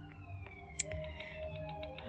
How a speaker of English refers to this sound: Ah, lots of sirens, sorry.